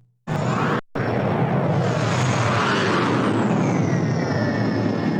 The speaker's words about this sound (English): Fly on, fly on. Oh wait, I got I got an airplane sound effect now.